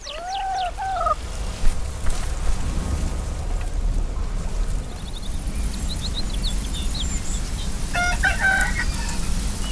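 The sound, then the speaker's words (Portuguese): Chickens cluck on a farm over a steady rustling outdoor background, with a clear call near the start and a burst of higher, chattering bird calls toward the end. No one speaks. “Gunda é um documentário protagonizado por porcos, galinhas e vacas.”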